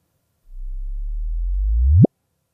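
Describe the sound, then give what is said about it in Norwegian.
An unadjusted recording of a gravitational wave: a low, steady tone swells slightly and then sweeps sharply upward in pitch, ending abruptly in a quick rising chirp after about a second and a half, with no voices present. “Eh, for meg så høres dette da ut som en frekvens som starter ganske lav, og så blir den høyere, høyere, høyere, fram til det blir stille.”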